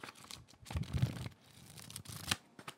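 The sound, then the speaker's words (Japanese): Crinkling and rustling of a sheet of paper being handled, in a few scratchy bursts with a brief sharper crackle near the end. No one speaks. “僕の場合だとその紙の音ってすごい好きなんですよえっ、ー、とね例えばここに今これ紙あるんですけどこの”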